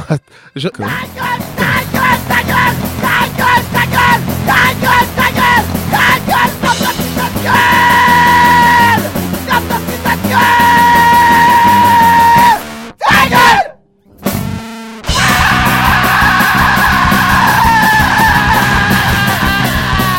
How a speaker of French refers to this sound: c'est plutôt un album métal. Hein. Ah, c'est métal, pardon. il travaille avec un guitariste et ils ont un gros son et ouais, c'est vrai que j'aime bien.